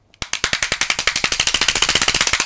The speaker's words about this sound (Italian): E per questo applauso vi ringrazio perché mi arriva da Lucia dall'Italia.